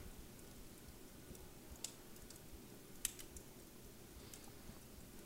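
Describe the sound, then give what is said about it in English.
A quiet fire crackles and fades out, with a few sparse, sharp pops scattered over a soft, steady low rumble; the snaps are faint and irregular, and no one speaks. “Sound of the crackle of the fire right now, which is fading out.”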